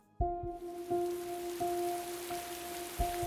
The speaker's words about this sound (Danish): Regnen siler ned